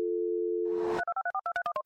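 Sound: telephone call sound effect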